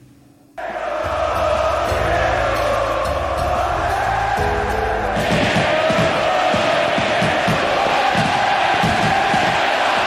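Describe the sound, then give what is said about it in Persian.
A stadium crowd of Gimnasia fans roars and cheers continuously, welcoming Diego Maradona, after a brief quiet start; a dense loud wall of voices with rhythmic chanting swells and low pulsing beats underneath. “بریم با هم صدای تماشاگرها و صدای مارادونا رو تو اون روز خاص گوش کنیم”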